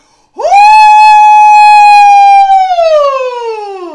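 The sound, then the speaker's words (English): A voice imitates the very loud laugh of two neighbouring ladies as a single long, piercing shriek that jumps up sharply, holds steady for a couple of seconds, then slides downward. It is loud and stands alone. “That's the exact fucking replica of how they laugh, right?”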